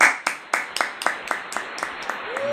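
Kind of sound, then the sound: human body sound, hand clapping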